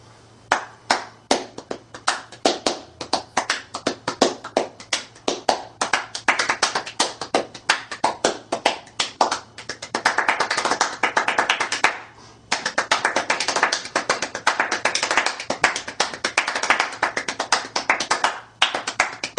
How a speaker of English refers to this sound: So I'm going to give you a little demo how that all works. First part is a warm-up, and then the second part gets into the ultra-fast, extreme, super-fast clapping.